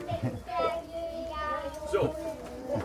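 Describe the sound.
A boy's high voice sings solo, holding steady sustained notes for a few seconds, with faint bumps and rustling from other children.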